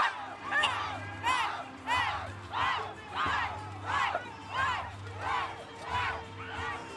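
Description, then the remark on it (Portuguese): A large festival crowd at the Arena Planeta Boi chants and cheers in a steady rhythm, about nine loud swelling shouts rising and falling over a constant low rumble of noise. “A galera tá insana aqui, meu amigo.”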